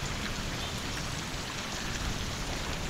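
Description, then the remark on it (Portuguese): Steady rain falls on trees throughout, a dense, even hiss of countless drops with no pauses or voices, moderately loud, like a continuous downpour on leaves and ground. “Eu tô emocionada com a chuva.”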